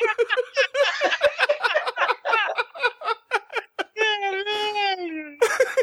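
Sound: whimpering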